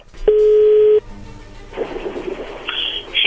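A telephone dialing tone: one loud, steady mid-pitched hum that holds for under a second and cuts off abruptly, followed by soft line hiss and a faint buzzy crackle.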